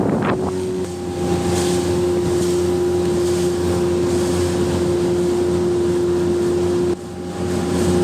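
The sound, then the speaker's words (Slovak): A boat engine drones steadily with a constant tonal hum as the boat travels on the Zemplínska šírava lake, wind buffeting the microphone and water rushing past the hull as the craft moves along, fairly loud, with no talking. “Vezeme sa na člne do Zemplínskej sa pozeráme na parkovisko jacht”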